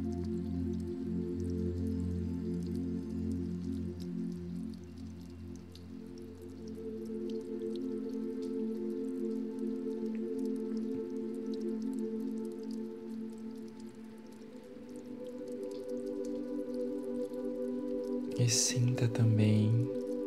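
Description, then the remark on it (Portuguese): Gentle dripping and trickling water runs steadily throughout, mixed with a soft sustained tonal drone, with a brief louder burst of sound near the end. “essa água abaixo de si, o movimento dessa água.”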